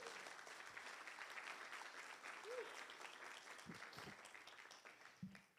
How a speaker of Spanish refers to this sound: ¿Cuántos le dan gracias al Señor? Vamos a darle un aplauso fuerte a Jesús.